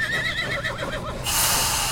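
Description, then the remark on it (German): A horse looking over a meadow fence whinnies loudly, a shrill, quavering neigh lasting about a second, followed abruptly by a steady burst of broad hissing noise. “Zwei Pferde schauten neugierig über den Zaun.”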